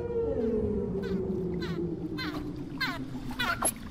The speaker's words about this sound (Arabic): وطبعا ما بنقدر ننسى الحيتان والدلافين اللي بيستخدموا الترددات الصوتية لحتى يتواصلوا مع بعض تحت البحر